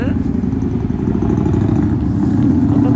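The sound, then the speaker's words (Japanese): A very loud motorcycle roars past outside between buildings, its deep engine rumble steady and overpowering for the whole stretch, with faint voices buried underneath. “車だ車だバイクだバイクだすごいすごいメーターが振り切ってる爆音メーターすげえやばいめっちゃうるさかったね今入っちゃったね”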